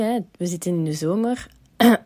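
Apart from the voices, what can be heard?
throat clearing cough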